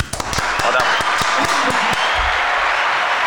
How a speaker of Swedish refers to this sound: så vi hälsar honom välkomna med en liten god applåd.